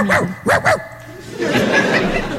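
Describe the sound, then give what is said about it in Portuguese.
A person in a studio imitates a dog with three quick, fairly loud barks, the last two nearly back to back, followed by a stretch of muffled, noisy background. “Eu tô achando que você ficou com inveja porque eu imitei um cachorro”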